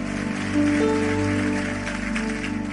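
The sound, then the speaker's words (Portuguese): An audience at a church service applauds God, a dense crackling clatter of many hands, with sustained keyboard tones humming underneath throughout. “Vamos aplaudir a Ele, vamos levantar e vamos embora.”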